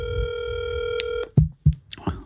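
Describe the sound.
A steady telephone tone hums for about a second, a call being dialed and ringing through, then it cuts off and a few short bursts of speech follow.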